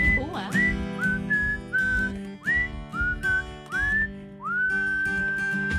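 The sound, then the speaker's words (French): A person whistles in imitation of a canary: a string of short upward-sliding chirps, then one long held note, fairly loud over a steady humming background. “Un serein, un vrai serein.”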